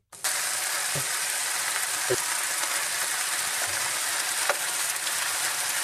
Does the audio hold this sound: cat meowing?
no